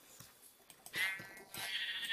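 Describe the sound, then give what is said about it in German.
Two sheep bleats from a video game as the player kills sheep with a wooden shovel, a short one followed by a longer wavering one, clear, with light tapping clicks in between and no talking. “Ich töte Schafe mit einer Holzschaufel.”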